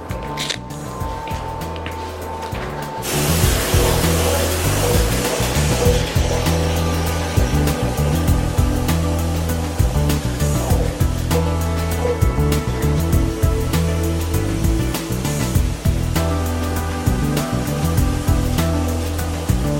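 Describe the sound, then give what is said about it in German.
A steady, loud hiss of spray equipment applying a polyurea coating with a textured finish runs throughout, layered over a low rhythmic machine hum and pulsing motor tones, with brief bursts of noise near the start. “dieses Polyurea kann äh, mit einem Finish versehen werden in Struktur, äh, was wir jetzt nochmal applizieren.”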